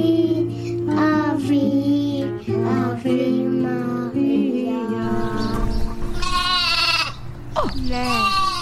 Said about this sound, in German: Wer ist denn da? Schaf. Da sind die Schafe. Ich hab's auch gehört. Schafe.